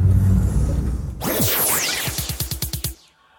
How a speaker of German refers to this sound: Das, was ihr da hört, ist nicht etwa eine schlechte Aufnahmequalität, nein. Das ist das warme Wasser. Das warme Wasser, das durch meine Heizung rauscht.